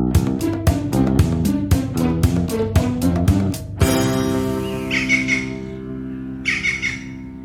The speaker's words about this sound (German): was war das denn? Süß. Kleines Äffchen im Garten, schön. Das war mehr, glaube ich, ein Vogel. Ja, okay. Irgendwas Buntes.